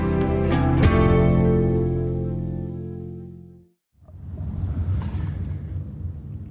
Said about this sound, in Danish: Jeg sidder i en bil på vej fra Østerbro ud til Nørrebro